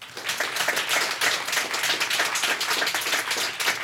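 An audience claps steadily, a dense crackle of many hands that stays fairly even in loudness throughout, with no voices over it.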